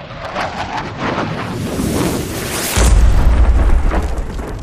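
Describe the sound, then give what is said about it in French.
A steady windy roar gives way midway to a sudden heavy explosion as an aircraft strikes a convoy about 500 metres away, its deep, loud rumble sustaining to the end. No one speaks. “Un avion pulvérise un convoi, à 500 mètres de moi.”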